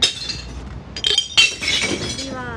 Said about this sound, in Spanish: Ay, qué gusto, ¿eh? Os lo recomiendo acumulad vidrio y una vez cada 15 días bajáis y lo vais tirando uno a uno con fuerza contra el fondo del, contenedor de reciclaje de vidrio.